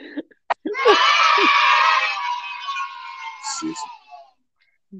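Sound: crowd booing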